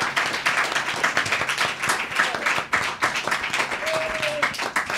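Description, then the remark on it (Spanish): A crowd applauds steadily for several seconds after a poem is recited, a dense wash of many hands clapping, with some faint voices and a brief whistle-like tone mixed in. “¡Aplauso, por favor!”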